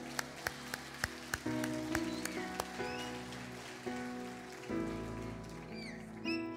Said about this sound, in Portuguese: Bem-vindo à igreja, aplauda Jesus.